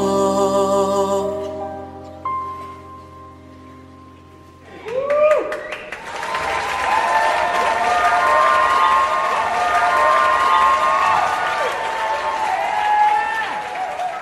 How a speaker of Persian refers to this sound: داخل اتاقک برایش دست میزد